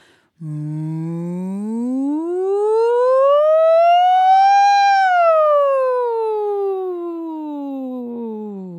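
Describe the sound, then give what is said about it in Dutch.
A voice imitates a fire engine siren as a singing exercise, in one long, smooth wail that climbs slowly in pitch and then glides back down, sung close to the microphone and fairly loud with nothing else around it. “Puntje 5, de sirene is echt een topper. Dat is zo cool om te doen. Dat is echt zo'n brandweerwagen.”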